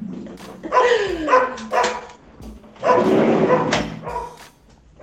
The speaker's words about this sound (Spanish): Em, tengo el perro nuevo, por eso me quedé silenciado.